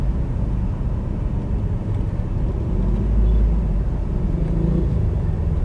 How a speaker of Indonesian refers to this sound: ya ada deh kayaknya untuk menghilangkan bosen gua di mobil di jalanan yang macet ini kayaknya cukup